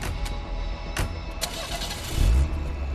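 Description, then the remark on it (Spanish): A car engine cranks and starts as people who have just left a house get into the car, with a few sharp clicks early on before a low rumble swells up near the end and settles into a steady idle. “a los pocos minutos salieron de la casa y se subieron al auto.”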